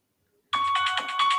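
After a short silence, a loud electronic alarm bursts on: a high, steady-pitched tone pulsing rapidly in about five quick beats, with no voices.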